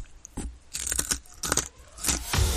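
Someone chews something crunchy, with a series of loud, crackly bites and crunches spaced irregularly over a couple of seconds. No one speaks.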